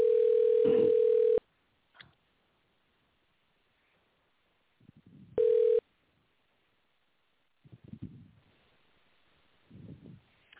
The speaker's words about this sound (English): So just bear with me. You're going to hear a little phone ring,